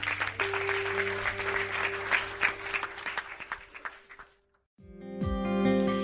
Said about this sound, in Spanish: Porque no damos un fuerte aplauso a nuestro Dios?